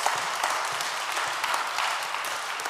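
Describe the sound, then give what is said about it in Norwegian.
A crowd applauds steadily, a dense, even wash of many hands clapping at once that holds at a consistent level throughout, with no voices standing out. “Er ikke det verdt en applaus, det?”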